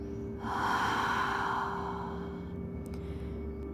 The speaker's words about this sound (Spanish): Céntrate en tus respiraciones Siente cómo tu pecho se infla con cada respiración. Inhala. Y exhala con lentitud, pero con energía.